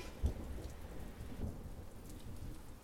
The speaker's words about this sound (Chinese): 外面又打雷又闪电